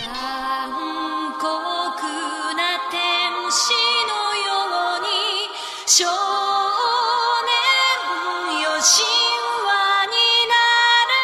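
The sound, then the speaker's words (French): A familiar upbeat theme melody from a Japanese animated series, covered on bicycle horns, bright nasal tones stacked into harmony, playing continuously and loudly for the whole stretch with no voices. “Ouais, mais interprété par des klaxons de vélo.”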